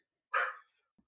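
A single short dog bark, a quick hoarse woof that stands alone in an otherwise quiet moment, followed by a faint soft thump.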